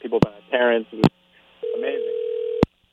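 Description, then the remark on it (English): A phone call-waiting tone sounds once as a steady, fairly loud beep lasting about a second, partly over muffled telephone-line speech, with sharp clicks on the line before and after. “I hear I, another call I think, coming.”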